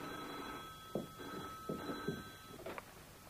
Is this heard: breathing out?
no